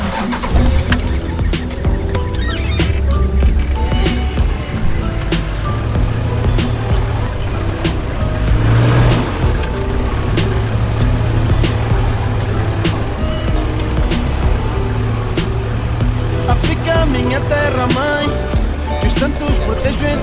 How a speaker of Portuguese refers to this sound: O suficiente para Castro ligar o motor.